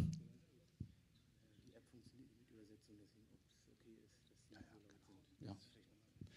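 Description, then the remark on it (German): Soft, indistinct whispering voices of volunteer interpreters, seated in the middle of the audience, murmur translations steadily in the background, faint and hushed, with a few brief louder bumps and clicks breaking through. “Also ihr hört so im Hintergrund die, die Background-Akustik, weil äh, wir hatten so eine App zum Übersetzen, die funktioniert leider nicht.”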